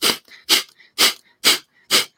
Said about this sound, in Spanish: Bueno, la respiración de fuego es una respiración donde tú vas a activar mucho el diafragma, ¿no?